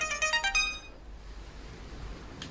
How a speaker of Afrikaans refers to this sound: Oh, SMS. Wil jy nou meer?